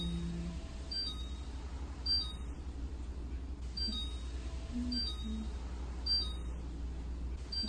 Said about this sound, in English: Really? They got louder now? Okay. Jesus. Stop beeping at me.